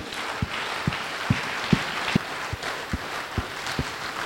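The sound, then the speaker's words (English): A crowd claps together for the Lord in thanks and praise, in a steady rhythm of about two beats per second, the sharp claps ringing out over a constant wash of noise with no one speaking. “Clap for the Lord for the thanks and praise giving.”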